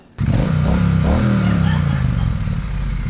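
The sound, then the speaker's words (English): A motorcycle engine starts abruptly and roars loudly, its pitch rising and falling in uneven revs with clattering and bumping underneath as the rider rides the motorcycle up a flight of stairs. “Oh, oh, oh, he's, he's riding his motorcycle up these stairs.”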